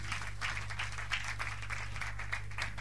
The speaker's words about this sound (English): Clap your hands and take your seat.